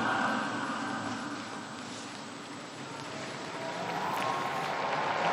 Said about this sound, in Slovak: Pozýva sa aplauz na meste svätého Petra po požehnaní, ktoré nám svätý Otec dnes udelil.